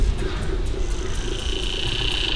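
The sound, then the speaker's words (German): A saddle bush-cricket stridulates in steady, evenly spaced high chirps, about four per second, over a continuous hiss of insects and a low outdoor rumble. Nobody speaks. “Das heißt einmal, hier haben wir jetzt gerade das Solo der Sattelschrecke und das Konzert der Vögel und Insekten.”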